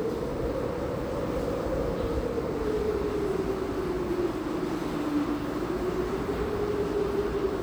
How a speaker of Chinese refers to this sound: 就是风很大，巨大风。现在正在那个台风眼的旁边，因为台风眼中间没有什么。呃，可能风雨会比较小一点，但我们就在台风眼旁边的暴风圈里面，所以现在风雨非常的、非常的大，有这么大，那轰轰轰的声音